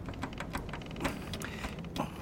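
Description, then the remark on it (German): Rapid metallic clicking and rattling of a key being jiggled hard where it is stuck in a safe's lock, a specially made single-use key, with irregular bursts of sharper clacks over a couple of seconds, with no voices. “Ich dachte gerade noch daran, meinen Schlüssel wieder vom Tresor abzuziehen.”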